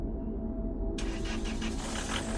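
A Volkswagen car engine starts up: a steady low rumble, then a sudden roar about a second in, with rapid rhythmic chugging as it catches and runs. No voices.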